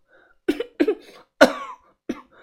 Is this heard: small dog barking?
no